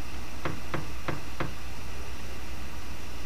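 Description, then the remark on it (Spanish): Four sharp knocks on the wooden door of a house, evenly spaced, followed by quiet with a steady background hiss. “Puerta, puerta.”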